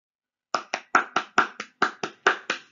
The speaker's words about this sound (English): I'm applauding for the United States for being the number one most generous uh, uh, country in the world for the last 10 years.